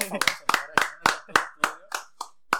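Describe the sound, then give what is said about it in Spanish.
Steady rhythmic applause for a woman, about nine sharp claps in even succession, fairly loud, with the last few growing slightly softer. “Tu fuerte aplauso para”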